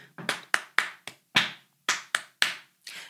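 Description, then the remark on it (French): Hands tap or clap out the rhythm of the French sentence "nous allons au parc" in a music rhythm exercise: about ten sharp, crisp hits in an uneven, syllable-like pattern, each ringing briefly. No voices accompany them. “Donc là, il entend clairement tous les mots séparés et aussi des syllabes allons, donc, l'enfant qui pratique de la musique va pouvoir taper ce qu'il entend.”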